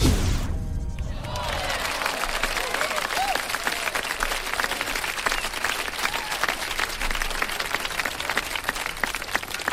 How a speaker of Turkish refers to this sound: Önce alkışlar. Evet. Alkış olmadan çıkamam. Gelemem stüdyoya.